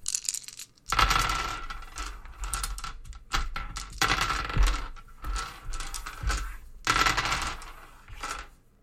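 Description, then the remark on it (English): Dice clatter and tumble across a hard library table in several quick bursts as kids play a dice game, each roll rattling briefly before settling, then starting again, fairly loud with no voices. “So all she could hear was the dice rolling over and over and over, and she could not stand it any longer.”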